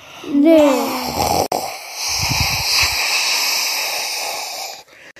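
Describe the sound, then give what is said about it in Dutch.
A voice imitates a rocket lifting off to the moon after a countdown: a brief rising vocal swoop, then a loud, steady, hissing rush of noise with a rumbling, pulsing stretch in the middle, lasting about four seconds. “Er was een oorverdovend lawaai en ze stegen op naar de maan.”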